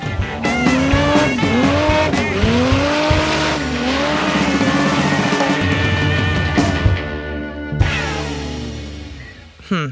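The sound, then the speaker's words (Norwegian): A car doing a burnout: loud, continuous tire squealing with wavering, swooping pitch over a roaring engine, holding steady for several seconds before a brief dip and a final surge. “Eh, og skal du burne ordentlig, så må du gjerne ha på litt olje.”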